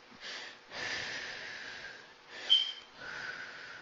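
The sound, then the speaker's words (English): Slow, audible breaths alternate in and out, four airy breath sounds in a steady rhythm, fairly soft, with a brief sharper hiss midway. No talking. “So breathing in and out”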